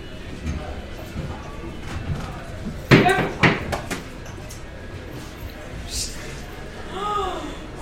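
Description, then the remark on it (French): A loud, sharp bang of a neighbour's door slamming shut in a village, followed by a couple of quicker rattling knocks, with faint background noise and a brief voice-like sound afterward. “La même porte de la voisine qui est toujours avec le même chat, simplement.”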